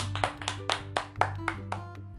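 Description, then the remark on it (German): About eight crisp hand claps in a steady, quick rhythm, clear, like a short round of applause from a lone clapper, given for Slytherin, with a low steady hum underneath and no talking. “Ein Applaus für Slytherin.”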